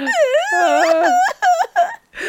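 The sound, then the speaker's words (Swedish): A dog howls in one long, wavering cry after being hit hard, then gives a few short whimpering yelps broken by brief pauses. No one speaks. “har du tjongat till hunden så hårt? Så att han bara...”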